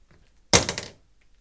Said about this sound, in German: Lassen Sie mal Ihr Schießeisen sofort fallen.